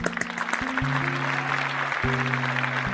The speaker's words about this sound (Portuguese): Se isso não fosse um podcast, eu não sei se fica brega, eu pediria para o Sonoplast botar uns aplausos aí.